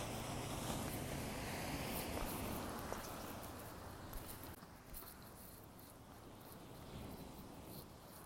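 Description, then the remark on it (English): A steady, broad roar of ocean surf washing ashore, with gusty wind buffeting the microphone throughout and no distinct individual wave crashes standing out. “Hope you'll still be able to hear me here with this background noise of the ocean.”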